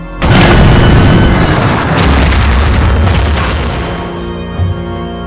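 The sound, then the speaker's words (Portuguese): A German Tiger tank, struck by a burning Soviet tank in battle, explodes with a deep, rumbling boom, then a sustained roar of blast and debris rolls on and slowly fades over several seconds, loud. “Um tanque soviético em chamas atingiu um tanque Tiger alemão, provocando uma grande explosão.”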